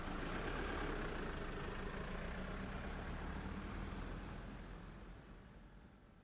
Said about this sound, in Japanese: そして外に止めてあった車に乗って、その場から立ち去った。